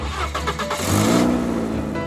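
A car engine cranks with a quick series of rhythmic pulses, then catches and roars into a loud, rising rev that holds steady to the end. Clear, with no voices.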